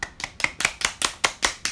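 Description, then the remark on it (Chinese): A person claps their hands about nine times in a quick, even rhythm, roughly five claps per second. Each clap is crisp and moderately loud, and no voices are heard. “我们是不是要去看？拍拍手。”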